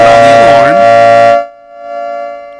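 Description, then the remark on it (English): A loud alarm siren wails with a swooping, rising-and-falling pitch over a steady blaring tone, then cuts off abruptly after about a second and a half, leaving only faint background noise. “don't put on the alarm.”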